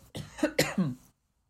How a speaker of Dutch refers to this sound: Oftewel, sorry, ik moet even hoesten.